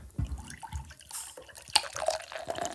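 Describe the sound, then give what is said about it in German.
Cola pours into a glass set over a coin, in irregular splashes and gurgles, with bright fizzy crackles and a few sharp drips, moderately loud and with no talking. “Jetzt schüttet ihr quasi so viel Cola rein, bis ihr die Münze nicht mehr seht.”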